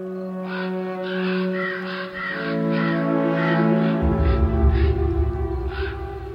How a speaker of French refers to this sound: Et là, en fait, un moment, l'aigle décolle, tous les corbeaux crient, et euh, en fait, le loup doit être là.